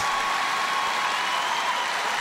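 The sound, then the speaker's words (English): Steady, dense applause from a large concert audience after a performance from the concert version of Chess: a continuous wash of many hands clapping at once, holding an even, fairly loud level throughout with no voices on top. “Oh, listen to that applause.”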